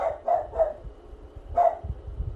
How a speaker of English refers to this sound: my dog is choosing violence right now.